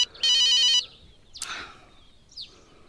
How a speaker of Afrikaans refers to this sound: Antwoord die foon.